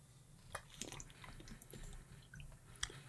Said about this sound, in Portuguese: Acabaste de me dar cedo, meteste aí água e eu agora tenho que beber, estou com a garganta seca.